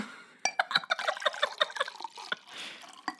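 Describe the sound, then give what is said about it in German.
Liquid being poured from one glass into another, half of one drink tipped into the other glass, with bubbly gurgling blips and a few sharp glass clinks over about three seconds, no talking. “Ich schütte erst die Hälfte von meinem in dein Glas und dann schüttest du wieder die Hälfte von deinem okay.”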